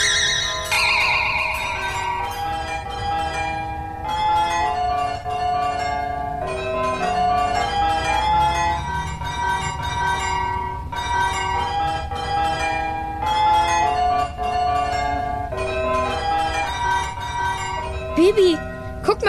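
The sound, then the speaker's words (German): A famous carillon Glockenspiel rings out the sing-song children's melody Hänschen klein, the tones struck one after another with a ringing, echoing sustain, loud and steady throughout with no talking. “Ene, mene, miel, spiel Hänschen klein jetzt Glockenspiel.”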